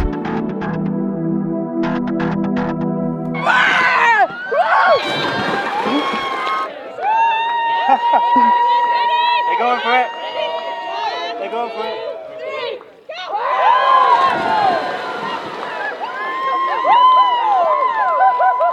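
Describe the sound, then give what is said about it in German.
A women's team cheers and shrieks excitedly, with bursts of splashing water as they jump into the largest pool at the clubhouse at the Solheim Cup, followed by more whooping and laughter. “in den größten Pool, ich glaube auch vom Clubhaus, sind die Mädels dann gestern”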